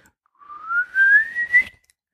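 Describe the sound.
A single rising whistle, a person imitating a bird's call, sliding steadily upward in pitch for over a second with a slight wavering, ending in a breathy burst; no talking.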